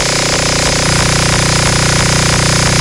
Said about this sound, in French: Mais pourquoi il y a un bruit de mobilette